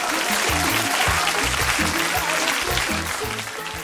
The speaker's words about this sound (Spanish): Es que soy rockstar. Un fuerte aplauso para nuestra rockstar.